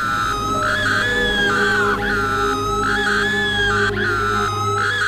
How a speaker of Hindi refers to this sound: लगातार चीखती जा रही थी